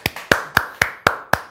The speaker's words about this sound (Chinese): 好，给你们一个掌，很棒的掌声。